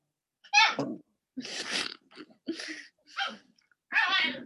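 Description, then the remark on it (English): Small dogs make funny noises: five short, sneezy snorts and squeaky bursts, separated by brief pauses, fairly loud with no one talking. “They just make the funniest noises. They're so funny. They're small dogs.”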